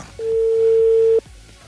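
A single steady telephone ringback tone sounds for about one second, loud and clear, then cuts off, leaving a faint low background murmur.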